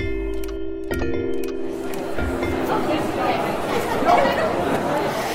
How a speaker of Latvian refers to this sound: Ir pulkstenis pieci pēcpusdienā, un pie Latvijas stenda Londonas grāmatu gada tirgu valda liela rosība. Te ir sapulcējušies pašmāju un ārzemju izdevēji, autori, literārie aģenti un citi nozares profesionāļi.